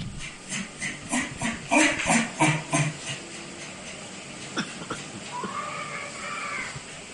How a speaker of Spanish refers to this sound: Se oye el grito del niño, o sea... Sí. Pues sí es extraño, puede ser uno, ¿no? Puede uno decir, bueno, es que lo sabe, que es el que graba el momento el audio, que el grito no viene de otro apartamento, ¿no? No viene de la calle.